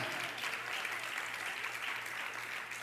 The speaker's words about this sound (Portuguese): Quem vive o melhor de Deus, aplauda Ele com alegria, com gozo, com verdade. Aleluia!